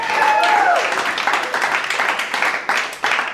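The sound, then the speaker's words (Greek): Sitcom-style studio applause: a dense, steady crackle of many hands clapping at once with crowd cheering mixed in, loud and sustained for a few seconds, with a brief whistle-like whoop near the start. “Μπορούμε να βάλουμε και εδώ, παρακαλώ, ε, χειροκροτήματα από sitcom”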